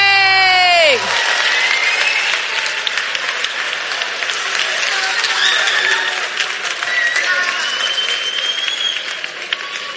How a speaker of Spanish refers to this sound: ¡Un aplauso! ¡Muy bien!